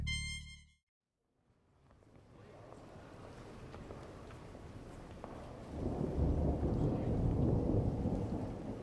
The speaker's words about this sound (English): Gee, listen to that. I haven't heard a storm like that since I moved to Los Angeles.